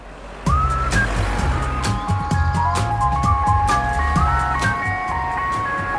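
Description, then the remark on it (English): An ice cream van jingle plays a bright, tinkling melody over a steady low engine rumble, loud, with no one talking. “Anyway, we've decided to create our own wonderful ice cream truck and we'll be giving out free ice creams to little children to make them feel happy and spread love.”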